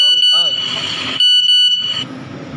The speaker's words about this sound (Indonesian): itu apa tadi bang ada telepon ya ada telepon